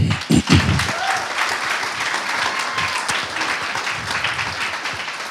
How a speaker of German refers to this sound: Licht an und Applaus an Nicole.